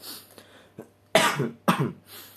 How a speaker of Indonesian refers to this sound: nah, sorry batuk.